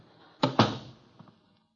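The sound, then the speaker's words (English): A door is opened to let a policeman in: two quick, solid thuds close together, then a faint latch click a moment later as things settle into quiet. No one speaks. “I opened the door and a policeman came in.”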